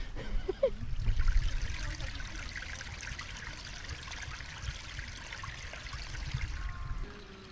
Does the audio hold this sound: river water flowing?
yes